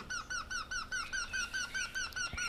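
A Eurasian wryneck gives its call, a rapid run of about ten nasal, ringing notes at a steady rhythm, moderately loud against a faint background hiss.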